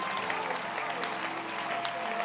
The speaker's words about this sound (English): But we thank God. Clap your hands. Let's appreciate him.